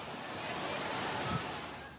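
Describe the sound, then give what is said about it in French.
A dense, steady roar of rushing floodwater and torrential rain at the Petra archaeological site in Jordan fills the two seconds, loud, a constant hiss-and-rumble wash with no voices over it. “En Jordanie, lundi, des pluies torrentielles sur le site archéologique de Petra, des trombes d'eau et d'impressionnantes inondations.”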